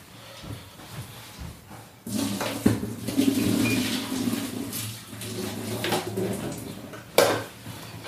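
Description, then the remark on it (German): Water pours and splashes into a metal sink for several seconds as boiled potatoes are drained, with clattering pot sounds and a sharp clank near the end; the rushing hiss is steady. “Kartoffeln abgießen. Zack, zack. Macht halt ein bisschen Krach.”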